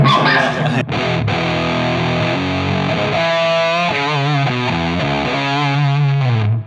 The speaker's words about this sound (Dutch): Dit is dan echt een herkenbaar Big Muff sound.